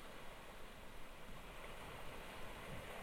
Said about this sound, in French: Les rebondissements de la houle moutonneuse. Et un final sans grand suspense. Les vagues se fracassant sur la grève.